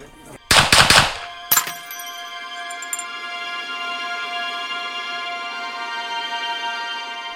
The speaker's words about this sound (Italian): Estrae una pistola 7,65 e fa fuoco per tre volte.